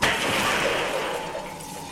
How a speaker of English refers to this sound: Just the sound of a whole pane of sliding glass door shattering violently all at once.